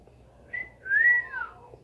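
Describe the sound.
A parrot gives a mocking whistle: a short high note, then a longer clear whistle that swells and slides downward, fairly loud, with no talking.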